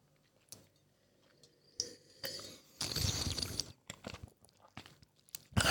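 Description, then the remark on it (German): Wet slurping as wine is sipped while oxygen is drawn into the mouth through the lips, a long hissing gurgle in the middle framed by shorter smacking, sucking bursts, with no talking. “nicht verschlucken, wenn man den Sauerstoff in den Mund zieht.”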